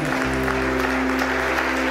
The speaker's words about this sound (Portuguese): Posso ver uma salva de palmas.